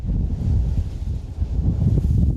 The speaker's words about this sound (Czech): Fouká tady dobře? Fouká tady, po většinu roku tady fouká. Elektrárny Vrbice stojí na kraji Doupovských hor už od roku 2010 a podle provozovatele na dobrém místě.